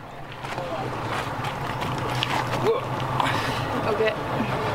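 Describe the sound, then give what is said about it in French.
Busy boat dock ambience as men load a boat bound for Cocalito: a steady low engine rumble with water and wind noise, occasional clunks and knocks of cargo being handled, and indistinct voices in the background. “Là, on est censé partir juste derrière sur l'embarcadère, direction Cocalito, pour 3-4 heures de bateau.”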